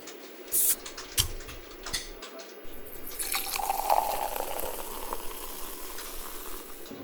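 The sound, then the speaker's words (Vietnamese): Red Bull energy drink is poured into three cups in a radio station office, opening with a few sharp splashes and taps, then a steady fizzing pour that rises in pitch as the cup fills. No one speaks. “Mình sẽ rót ra ba cốc và đánh dấu 1, 2, 3 để không ai biết được đâu là loại nào này.”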